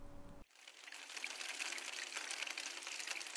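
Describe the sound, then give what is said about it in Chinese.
Steady rain falls as a dense, hissing wash with no distinct drops, continuous and moderately loud, beginning abruptly after a brief low hum at the start. No one speaks. “天又开始下雨了”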